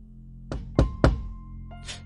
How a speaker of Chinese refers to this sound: 有人在敲门，真的是他，他来找我了。